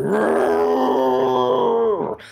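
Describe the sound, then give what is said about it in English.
A person growls out a long, loud, guttural roar imitating a giant ape, sustained for about two seconds before trailing off abruptly. “Do you have an ape noise for me?”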